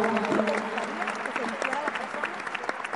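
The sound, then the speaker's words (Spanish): An audience claps steadily for a few seconds, a dense patter of many hands at a moderate level, while a voice speaks over the applause. “Venga el aplauso.”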